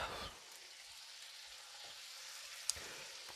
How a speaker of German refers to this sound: Also, Butter und Öl sind schon heiß. Dann können wir dann gleich mal hier äh, die Fleischstückchen reinlegen. So. Dann.